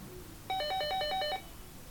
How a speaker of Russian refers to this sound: О, зазвенел. Вдруг ожил телефон.